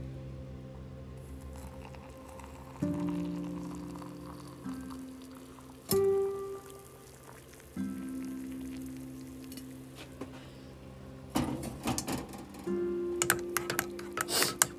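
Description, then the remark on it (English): Someone making a cup of Nescafe instant coffee: a spoon clinks and scrapes against a mug, with rustling and a soft stream of pouring, in short irregular bursts and almost no talking. “This, my friends, is the sound of heaven”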